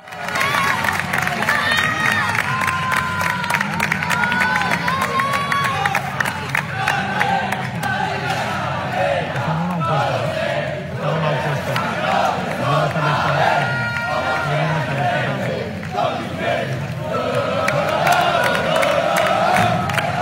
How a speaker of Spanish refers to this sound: A ver, mi estimado operador, póngame el audio, que escuchen el ambientazo con el cual recibieron hoy a los jugadores del Mallorca, luego de que ayer lograron el pase a la final de la Copa del Rey en España. Escuchemos.